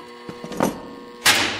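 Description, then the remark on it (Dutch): A very heavy door on the other side of a glass partition opens with a few dull knocks and a scraping rumble, then a louder broad whoosh or clunk as it swings fully, with no voices. “gaat nu een deur open”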